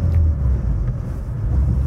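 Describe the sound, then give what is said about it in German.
A car engine rumbles steadily in a low, continuous drone, with no voices, holding a fairly even loudness throughout as the car drives along and overtakes a slow-moving heavy truck. “Ich folge ihm jetzt einfach mal, obwohl ich könnte auch an ihm vorbeifahren, weil er mir viel zu langsam fährt.”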